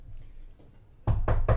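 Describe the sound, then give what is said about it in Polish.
Three loud knocks on a door in a quick, even rhythm, following a stretch of quiet low rumble; a postman knocking to deliver a package. “Najpierw kurwa jest wejście, a potem jest pukanie w drzwi.”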